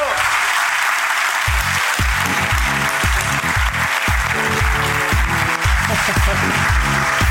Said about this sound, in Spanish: ¿Lo recibimos ya? Venga, un fortísimo aplauso para el cómico